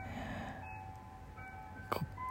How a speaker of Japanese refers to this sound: 5時の チャイムが鳴ってますけど